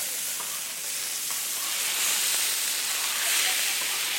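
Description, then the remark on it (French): Steady sizzling and crackling of pork (plouma) grilling on a hot plancha griddle, a dense hiss with scattered small pops, continuous for the whole stretch, with no voices. “Voilà, vous pouvez découvrir le crépitement de la plouma qui grille à la plancha.”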